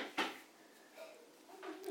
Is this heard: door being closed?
yes